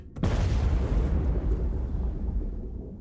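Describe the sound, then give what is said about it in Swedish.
A sudden, heavy explosion of a type 65-76A torpedo in the forward part of a submarine, during a torpedo firing exercise at periscope depth, erupts with a sharp onset, then a deep, rumbling roar that sustains and slowly fades over several seconds, loud with no voices. “En explosion inträffar i ubåtens främre del Explosionen startar en kraftig brand och en tryckvåg sprider sig vidare från torpedrummet till stridsledningsrummet.”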